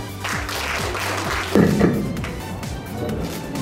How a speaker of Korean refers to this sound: 박수로 환영하겠습니다.